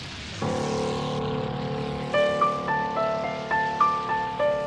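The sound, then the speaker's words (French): A Spitfire's steady droning propeller engine hums loudly, then begins pulsing unevenly with rising and falling whining tones every half second as the engine suffers mechanical trouble. No voices are heard. “Joubert vient de signaler qu'il a des ennuis de moteur et qu'il va, sans doute, sauter en parachute”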